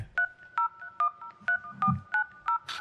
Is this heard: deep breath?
no